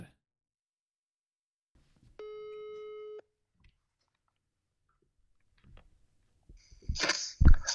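A single ringback tone of an outgoing phone call, one steady electronic beep lasting about a second, followed by near silence and then loud rustling, bumping noises at the end.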